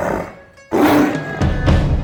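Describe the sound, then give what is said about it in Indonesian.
A tiger roars loudly, a rough, rumbling blast followed by two more surging growls, after a brief quieter tonal lead-in. “Pada saat itu muncullah macan yang ia cari-cari.”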